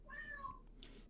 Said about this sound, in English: yeah, that's my cat. Yeah. he agrees. he agrees.